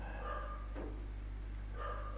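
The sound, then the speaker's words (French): A dog barks in a few short, muffled bursts, with a pause between them, over a steady low background hum. No one speaks. “Oui, le chien ne parle pas vietnamien, il aboie en vietnamien en fait.”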